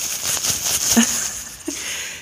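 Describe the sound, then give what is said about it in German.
Soft, papery rustling of a sustainable period panty made of light, high-quality cotton, a steady crinkly hiss with a couple of sharper crinkles partway through, fairly quiet and with no talking. “Und wenn ihr, hört ihr das rascheln?”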